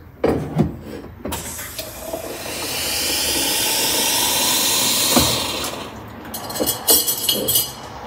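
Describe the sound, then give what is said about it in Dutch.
Boiling water pours steadily for several seconds into a cup that already holds a little cold water, a broad hissing, bubbling stream that rises in pitch as the cup fills, framed by small clinks and taps before and after. “Dan kokend.”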